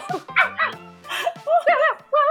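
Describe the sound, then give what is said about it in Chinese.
Several short, high-pitched yips and whines from a dog that has run in and is on the floor, in quick succession, fairly loud, mixed with bursts of laughter-like voices. “哎，这里怎么有狗？地上怎么有狗？”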